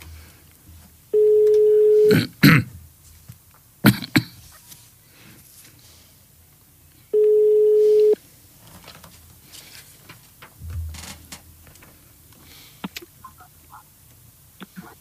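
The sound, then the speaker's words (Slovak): A telephone ringback tone sounds twice during an outgoing call, each steady one-second beep separated by a long pause, while someone clears their throat a couple of times. “už to zvoní.”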